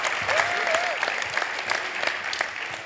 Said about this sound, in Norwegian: Skal vi bare klappe henne ned?